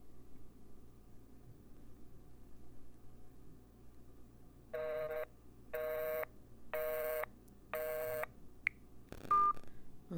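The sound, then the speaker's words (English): Four evenly spaced electronic keypad tones as a number is dialed on a cell phone, each a short steady beep, followed by a couple of brief chirps, over a low background hum with no talking. “Let me try from my cell phone.”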